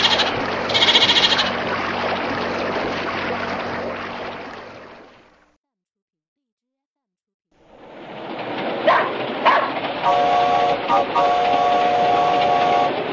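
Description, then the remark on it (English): A goat bleats over a noisy, rushing background, which breaks off into a pause of silence and then resumes. The wavering bleats come loud near the end. “the goat is in a boat.”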